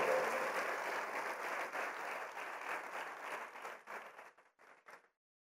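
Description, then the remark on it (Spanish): An audience at a morning service applauds the Spirit of the Lord, breaking into dense, sustained applause that holds steady for several seconds, then thins into a few scattered claps before stopping. “Le vamos a dar un aplauso al Espíritu del Señor esta mañana.”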